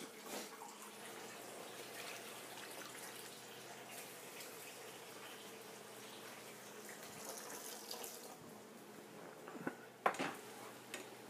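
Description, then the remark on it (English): Water runs steadily from a tap and splashes into cooking pots for several seconds, topping up two pots, followed by a few sharp metallic clanks of cookware near the end, with no one speaking. “And I underestimated the water. I need more water in both those.”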